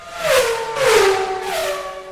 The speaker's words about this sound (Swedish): Men om vi eh, bumprar på en eh, Formel 1-bil som kör förbi och sen så pratar vi mer om själva racingen.